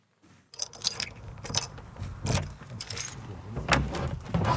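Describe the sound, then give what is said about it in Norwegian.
Keys jangle and scrape in a lock, followed by clicks and the door of Nørholm, a historic farm and writer's study in Grimstad, Norway, creaking open, with a series of metallic rattles and thumps and no voices. “I høst ble døra til Nørholm, dikterstova og gården til Knut Hamsun i Grimstad åpna på gløtt for NRK”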